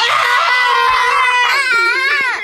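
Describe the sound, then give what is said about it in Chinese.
A person lets out a loud, strained angry roar imitating a lion while clawing at the air to release anger, one sustained raspy howl lasting a couple of seconds, with pitch wavering and sliding down at the end. “然后呢，我像狮子一样怒吼，朝着空气张牙舞爪。”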